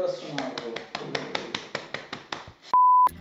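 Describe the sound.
Steady, evenly spaced clapping, about a dozen sharp claps over a low murmur of voices, cut off at the end by a loud, flat electronic tone.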